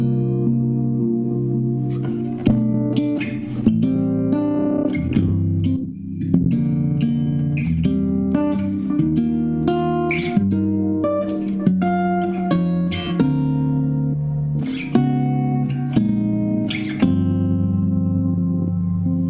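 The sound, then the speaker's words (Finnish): A guitar run through a Boss super octave pedal, producing a thick, bass-heavy tone as it plays a steady line of sustained notes with regular attacks, with no talking. “Sitten mulla menee tänne possin superoktaaveripedaaliin.”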